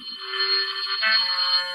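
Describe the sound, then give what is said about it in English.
A telephone rings in an apartment with a steady, high-pitched electronic trill that holds for almost two seconds at fairly even loudness, with no voices. “The phone rang just as we were about to leave the apartment.”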